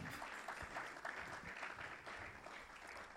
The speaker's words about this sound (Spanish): por un fuerte aplauso.